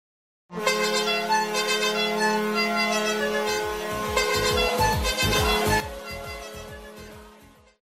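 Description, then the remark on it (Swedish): A loud, continuous air horn blares for about seven seconds, its buzzy, brassy tone holding steady while a rhythmic low thumping pulses beneath it in the latter half, with no voices. “Alltså, jag känner mig typ irriterad på dig när du drar igång den där jävla tutan.”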